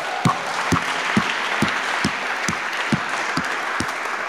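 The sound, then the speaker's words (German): An audience at a church service in the Michaeliskirche applauds loudly and at length, a dense wash of clapping with a steady, regular pulse of heavier claps roughly twice per second running throughout. “Auch von uns hier aus der Michaeliskirche mal einen kräftigen Applaus in die offene Arbeit.”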